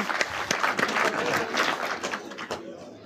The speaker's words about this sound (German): Ein Applaus bitte für